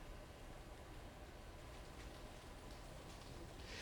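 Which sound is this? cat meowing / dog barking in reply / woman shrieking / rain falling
rain falling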